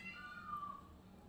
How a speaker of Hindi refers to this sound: और शायद आपको सुनाई दिया होगा यहाँ पे मोर बहुत हैं तो उनकी आवाज़ें आती हैं बड़ा अच्छा माहौल है